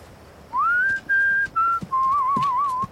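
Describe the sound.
Someone whistles a short song melody up close, clear and steady: a rising glide into held notes across a few phrases, ending in a wavering, trilling line. No one speaks.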